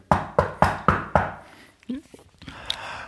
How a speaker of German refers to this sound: Ja, da klopft wer an der Tür quasi.